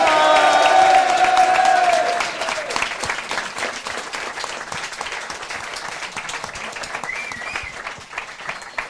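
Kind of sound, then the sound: crowd, audience applauding and cheering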